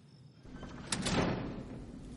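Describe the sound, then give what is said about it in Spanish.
A gym door opens at night with a sharp click of the latch followed by a broad, rushing scrape as it swings, then a lingering low rumble that fades out. No one speaks. “Se levanta al oír la puerta del gimnasio, descorre las cortinas y se asoma.”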